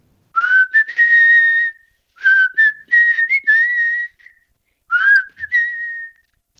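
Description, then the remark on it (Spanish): A person whistles a slow, clear melody of a popular song from the 1990s in three phrases with short pauses between them, fairly loud, with no talking over it. “necesito que me hagas un silbidito. Si yo te digo …, …, los 90, ¿cómo es el silbidito?”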